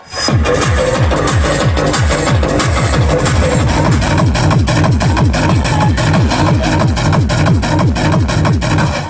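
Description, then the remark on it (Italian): Loud, relentless music from the Summer Alliance rave party, an unauthorized 2007 edition attended by over 300 people, with pulsing, repeated bass drops sweeping downward in a fast steady rhythm, dense layered electronic sound filling the whole stretch without pause or voices. “Quello che si ritrovano davanti è il Summer Alliance, edizione non autorizzata 2007, un rave party che più o meno suona così.”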